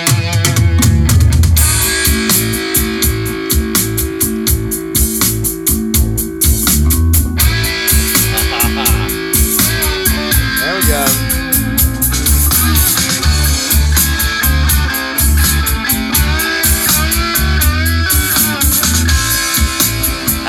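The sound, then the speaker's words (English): A theme song plays loudly from a phone over boat speakers with the subwoofer turned up, with a steady driving drum beat and layered instruments running continuously for the whole stretch, no voices talking over it. “what we wanted to do was play some music to really let you hear how it actually sounded”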